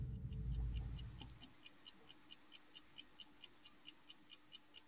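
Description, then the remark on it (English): A silver pocket watch made in 1885 ticks quickly and steadily, quiet, with crisp evenly spaced ticks that begin after a second of low muffled rumbling, as if the mic is being moved. “This is a silver pocket watch made in 1885 and it's got a, a 16 two beat train, which is the number of ticks per hour.”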